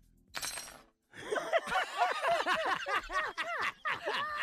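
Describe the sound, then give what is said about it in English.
Metal silverware hits a hard surface with a sharp clink, then clatters and rattles in a rapid, ringing series of bright jangles, fairly loud, with no talking. “Just drop your silverware.”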